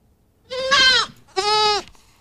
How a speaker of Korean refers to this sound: 새끼 염소 울음소리예요. 새끼들은 참 울음소리도 이쁘네요. 그렇죠? 생긴 건 물론 이쁘고.